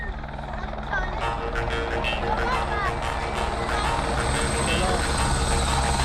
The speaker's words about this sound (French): Là, l'hélicoptère est arrivé. Le docteur et deux infirmières.